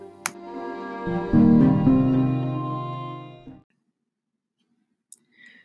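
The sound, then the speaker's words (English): A phone rings with an incoming call, a bright, tonal electronic ringtone that plays one sustained, chiming phrase for a few seconds, then cuts off, leaving near silence broken by a couple of faint clicks. “Oh, look, I have a call.”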